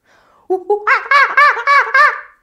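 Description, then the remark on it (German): A person imitates a monkey with a rapid series of about six loud, rhythmic hooting calls, each rising and falling in pitch, preceded by a couple of short lower hoots. “Ich kann einen ganz guten Affen.”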